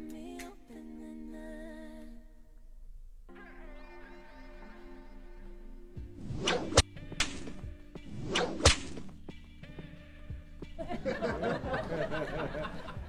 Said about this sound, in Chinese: 来一鞭子可以啊，没有问题啊。嗯，一鞭子算啥？